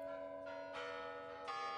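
Large Kremlin bells in Moscow ring in the new year on 31 December 1991 in a steady peal, a new resonant strike roughly every three-quarters of a second over a continuous humming ring, fairly loud with no voices.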